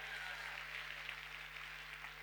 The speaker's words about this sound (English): Go ahead right now and give yourselves an incredible round of applause this morning for being in church. Go ahead, you can do it